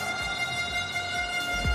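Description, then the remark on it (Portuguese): A horn blares in one long, unbroken blast at the Campus Party event, its steady, brassy tone holding at an even loudness from start to finish with a faint low rumble underneath. “É uma buzina.”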